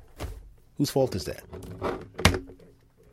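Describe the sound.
A couple of short, dull knocks and rustling handling noises as cables are moved around on a desk and a computer is shifted over closer to the microphone, mixed in with a man speaking.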